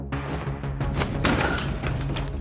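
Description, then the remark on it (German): A sledgehammer, swung by a man in safety goggles, repeatedly bashes a printer's plastic casing to destroy devices used to buy Bitcoins, a quick series of sharp, cracking thuds in the first second and a half, over a steady low droning background. “Er zertrümmert damit das Plastikgehäuse des Druckers. Immer wieder schlägt er zu.”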